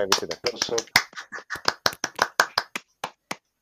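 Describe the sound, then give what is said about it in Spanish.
A burst of finger snaps as applause for Perro Chef: quick, crisp clicks, dense at first, then thinning to a few spaced snaps. Fairly loud, with some brief voice sounds mixed in early on. “Un aplauso para Perro Chef.”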